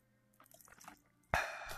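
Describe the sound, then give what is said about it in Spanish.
Someone takes a small sip of water: faint wet slurping and liquid sounds, then a sudden loud breathy gulp or exhale that lingers briefly. No talking. “Tienes que apagar todo. aparte un traguito de agua.”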